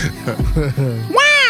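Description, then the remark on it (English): A person imitates a crying baby: a few short voiced sounds, then a loud, high wailing cry that rises sharply in pitch and holds to the end. “Okay, I was trying to do a baby.”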